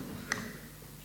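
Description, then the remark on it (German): One quick, bright clink of two drinking glasses touching, with a short ringing tone that fades fast. It is fairly quiet over a low steady hum, and no one speaks. “Normalerweise brauchen wir sie, um anzustoßen. Es entsteht ein schöner Klang, Harmonie.”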